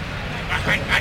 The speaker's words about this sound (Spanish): El torilero que hace la señal para abrir y vamos a oír ese cerrojazo. El cerrojazo que abre esa puerta donde la suerte Está echada en el momento que el toro salte al ruedo.